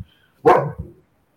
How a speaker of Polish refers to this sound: Yy, czy, czy, czy, czy dobrze słyszę kolegę psa? Yy, tutaj jest czwórka psów. Czwórka psów. O. Więc e, jak coś jedzie, albo nie daj Boże, ktoś tu się zatrzyma, to zaraz będzie rwetes.